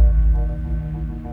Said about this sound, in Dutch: Als je duikt in de buurt van walvissen, dan kun je de hartslag van de walvis horen.